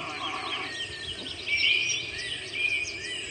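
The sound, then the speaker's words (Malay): Thin, high bird calls twitter through a steady outdoor background hiss, growing a bit louder midway and again near the end, with no voices present. “Ada bird lagi. Bunyi bird.”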